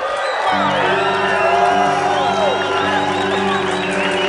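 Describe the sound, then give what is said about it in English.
A large crowd cheers loudly and continuously during a standing ovation, with whoops and shouts rising over a dense roar of voices, sustained throughout. “That was a cheap way of getting you to do a standing ovation.”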